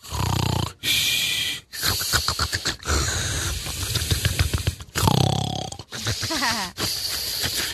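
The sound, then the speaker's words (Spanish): A voice imitates the loud snoring of an old man asleep in church during a sermon: about eight rough, raspy snores with wheezy whistling breaths between them, in an uneven rhythm, with no talking over it. “Y se queda dormido ahí en pleno sermón.”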